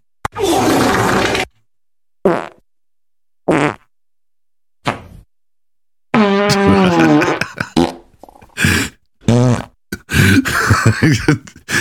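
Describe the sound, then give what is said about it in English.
A series of fart sound effects: a long loud one, several short sharp bursts separated by silence, then a dense run of rapid, varied farts toward the end. “He loses his laptop, but he still manages to find an array of farts to play on the show.”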